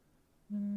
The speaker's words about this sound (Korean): 지금은 아주 늦은 새벽입니다. 깊이 잠이 들어있는 한 남자에게 전화가 걸려오고 있습니다.